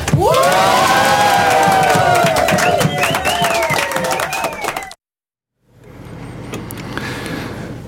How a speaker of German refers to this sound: Jetzt hier gerade gehört Kirchengesänge aus Rarotonga in den Cook Islands.